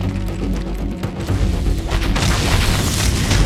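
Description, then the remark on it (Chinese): A giant snake's head slams into the ground with a loud, deep booming crash, smashing a deep pit; the low rumble rolls on while a gritty hiss of scattering sand, stones and dust swells toward the end. No voices. “巨蛇的头颅撞击到地面，砸出深坑，激起沙石和尘土。”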